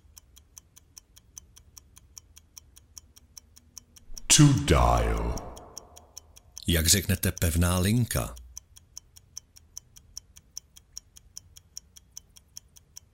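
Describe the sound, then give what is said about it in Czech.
A stopwatch, started for a timed English-phrase practice, ticks steadily and quickly throughout, with sharp, evenly spaced clicks that continue under two short bursts of speech in the middle. “Jdeme na to, já zapínám stopky.”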